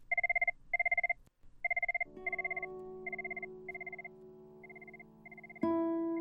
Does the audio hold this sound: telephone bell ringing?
yes